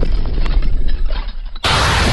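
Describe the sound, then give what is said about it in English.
A Fourth of July fireworks explosion sound effect: a loud, deep rumbling boom that rolls on for over a second, then cuts to a sudden, harsh, crackling blast. “North Schindler's slightly illegal fireworks. It'll blow you away.”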